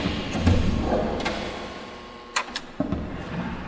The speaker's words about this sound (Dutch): Eh, u hoort, dames en heren, wij, wij gaan hier door enorme deuren heen.